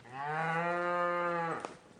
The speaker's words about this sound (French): Ah, ça c'est là peut-être la plus vieille vache de Lozère. elle a quel âge Ouais, elle a, plus de 20 ans.